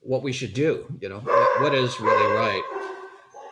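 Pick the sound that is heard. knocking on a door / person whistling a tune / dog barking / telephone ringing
dog barking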